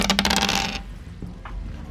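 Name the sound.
dice being rolled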